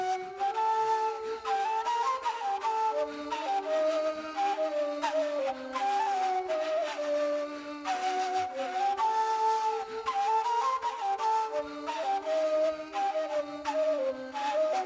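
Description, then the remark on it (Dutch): A soft, breathy flute from a demo plays a flowing melody with sustained notes and gentle slides, layered over steady harmonic tones, continuous throughout with no voices. “En dan zet ik dan soms heel zacht nog even de, de, de, de fluit uit de demo eh, bij aan.”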